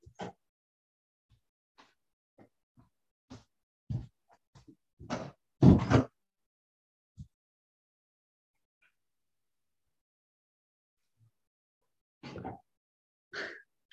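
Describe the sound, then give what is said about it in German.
Scattered clicks and soft knocks build to a loud thud of a door being closed, followed by a few faint shuffles and bumps, with no one talking. “Ich muss mal gerade die Tür zumachen, mein Mann fängt an zu kochen.”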